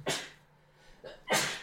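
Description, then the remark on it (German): Two loud, close sneezes about a second apart, each a sharp, breathy burst, with a softer intake of breath between them. No one speaks. “Gesundheit!”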